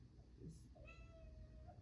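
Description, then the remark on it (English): A cat gives a single drawn-out meow, thin and fairly high, with faint low background hum and a brief muffled human sound just before it. “Can you meow again? Look at the camera and meow.”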